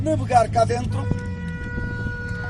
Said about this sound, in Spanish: Los portugueses son muy ruidosos, como los españoles, y mientras manejan estas barcas, los moliseiros necesitan avisar de sus indicaciones y de sus giros por los canales, algo que hacen usando el claxon.